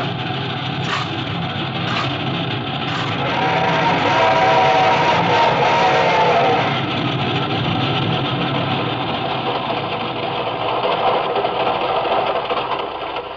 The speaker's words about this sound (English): This train ain't going very fast. He's climbing, honey boy. Wait till we get over the mountain. You'll see her go.